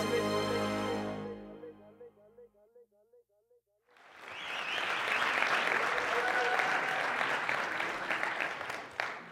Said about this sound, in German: Ja, ihr könntet tendenziell schon fast weitermachen mit dem Klatschen, weil es war ja die perfekte Einleitung.